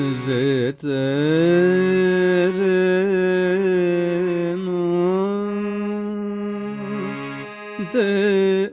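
A solo male voice sings long, held notes in khayal style, full, broken by a few quick, sharp khatka turns that flick the pitch before settling back into the sustained line.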